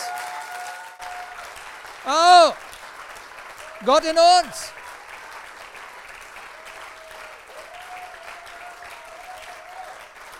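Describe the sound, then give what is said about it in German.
Sustained audience applause, given to God for the hope within, fills the whole stretch at a steady level, while a man's voice rings out over it in two short, loud exclamations. “Lass uns mal Gott für die Hoffnung in uns einen Applaus geben.”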